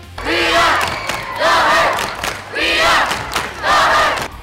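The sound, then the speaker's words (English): A large high school student cheering section at the Battle of the Fans chants and cheers in loud, rhythmic bursts, four swelling waves of massed voices with brief dips between them. “Sportsmanship is an important part of educational athletics, and student cheering sections can be a key factor in creating a festive high school event.”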